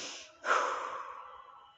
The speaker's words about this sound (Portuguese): Vamos começar com respirações mais rápidas. 10 respirações rápidas. Respira pelo nariz e solta pela boca.